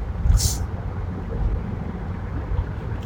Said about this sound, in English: a little bit of a traffic snarl here. All the people so worried about getting to work on time, trying jockeying for position. it's like uh, the horse race, right?